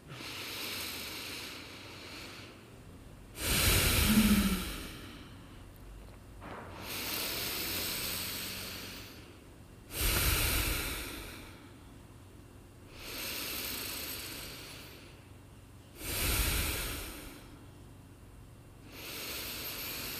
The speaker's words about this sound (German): Wir nehmen am Anfang jetzt mal fünf tiefe Atemzüge. Macht die wirklich, wirklich mal so tief es geht, als ob ihr das erste Mal in eurem Leben ein- und ausatmen würdet.